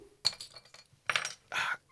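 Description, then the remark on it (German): A can of beer cracks open with a sharp metallic click, then short bursts of fizzing hiss follow, fairly loud, with no one talking. “Nee, Dose. Das war ein ah, nice Zischklack.”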